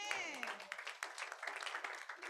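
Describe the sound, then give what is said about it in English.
A crowd bursts into steady, dense clapping for Jesus, many hands striking in quick overlapping rhythm, with a raised voice trailing off at the very start. “Clap for Jesus.”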